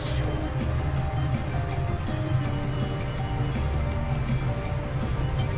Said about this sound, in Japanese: うあ裏側もなんか焼けてる感じの音がしますね多分順調に焼けてますよ音だけだけど 音だけだけど焦げ臭いとかそんなことはないのでおそらく大丈夫